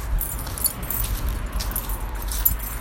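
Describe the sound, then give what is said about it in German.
Keys jingle and clink repeatedly in short bursts, with bright metallic rattles over a low rumbling background and no one speaking. “Ich muss den Schlüssel jetzt erstmal noch zur Seite legen.”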